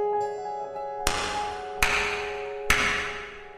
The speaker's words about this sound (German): Jeden Abend klatschte der Gastwirt.